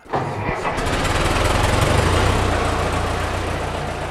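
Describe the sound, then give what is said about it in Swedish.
An old car engine on Åland cranks and catches near the start, then settles into a loud, steady, throaty rumble that runs on without pause. No one speaks. “I det här avsnittet ska det handla om den gamla bilen.”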